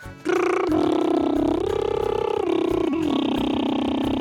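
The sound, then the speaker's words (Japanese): A sustained, loud buzzing lip trill, a voiced flutter of the lips with a rapid rhythmic pulse, gliding up and down in pitch for about four seconds, done as a singing practice exercise. “あとはあれ唇もねプーってやつこれこれでますねってやつでございますねこれもねあの歌を歌う人は必須でございますので 練習してくださいませこれでね音程取れて”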